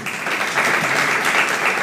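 Steady audience applause, a dense wash of many hands clapping at once, holding at an even, fairly loud level throughout with no voices over it.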